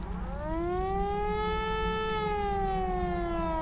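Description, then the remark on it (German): A civil defense siren wails steadily in Eschede at 11:03, four minutes after an accident, summoning volunteer fire brigade members to the fire station; its tone rises slowly then holds and gently falls, loud and continuous over a low background rumble, with no voices. “Um 11.03 Uhr, nur vier Minuten nach dem Unfall, heulen in Eschede die Sirenen.”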